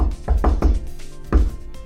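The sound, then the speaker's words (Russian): A patterned knock on a door: three quick raps in a row, a short pause, then one final knock, fairly loud with no one talking. “Но ну, там наверняка есть еще вот эта вот штука, типа специальный стук там типа.”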